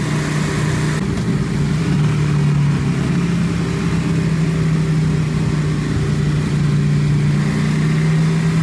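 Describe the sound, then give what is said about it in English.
A stock Super Duke R sport motorcycle engine runs on a dyno, pulled one gear too low until it hits the rev limiter, producing a loud, continuous throbbing drone that holds steady and edges slightly higher in pitch, with no voices present. “Well, here's a little sample of the stock Super Duke R.”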